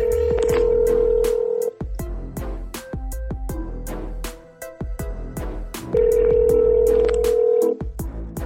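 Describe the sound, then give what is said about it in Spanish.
A telephone call being placed to a Puerto Rican urban music artist: steady ringback tones sound twice, each about two seconds long, with gaps between them. Sharp clicks tick along throughout, and no one speaks. “he decidido sorprenderlo con una llamada para que nos cuente su historia”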